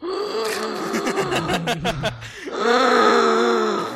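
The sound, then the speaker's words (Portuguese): A voice imitates a painful, breathless sniff of being out of breath after walking up a steep hill: a run of quick, rhythmic gasping breaths that speed up, then a long, loud, strained groan-like exhale. “Aquela, aquela, aquela fungada que dói na alma, assim, caralho, mano, o que tá acontecendo comigo, velho?”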